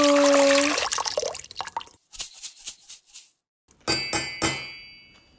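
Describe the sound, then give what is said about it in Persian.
Water, with salt and pepper, poured into a cooking pot of soup with noodles, potato and carrot, heard as a run of short plops and splashes, followed by a few bright metallic clinks that ring briefly. No one speaks. “الانم بقیه مواد رو بریزیم توش آب و نمک و فلفل رو”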